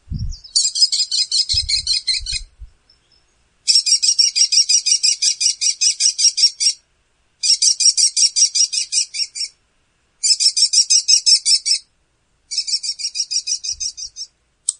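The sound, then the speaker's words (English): An American kestrel alarm call: shrill, rapid klee-klee notes delivered in five loud bursts separated by short pauses, clear with no talking. “So that is an alarm call, and that is what researchers will mm-hmm.”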